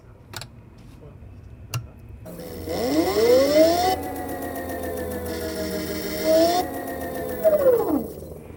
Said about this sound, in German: Jetzt wird High Voltage eingeschaltet. Das macht so ein schönes Geräusch. Da hört man unsere Schütze durchschalten. Das gehört man da unten schön.